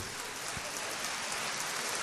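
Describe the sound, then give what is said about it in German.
Dense, continuous applause from a large crowd, a steady hiss of many hands clapping at once that sounds almost like heavy rain, with no talking; recorded applause taken from a concert and played back. “Nein, das ist der Applaus für dich.”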